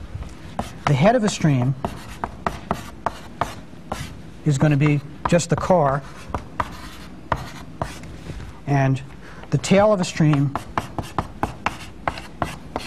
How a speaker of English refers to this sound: And before I explain that, let me go and write the rest.